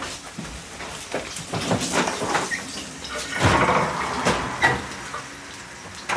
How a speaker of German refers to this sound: So, wollen wir die Kartoffeln abschütten? Ja, aber dann werden sie kalt, oder? Deckel drauf lassen.